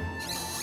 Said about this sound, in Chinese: 听，这是面包店开门的声音。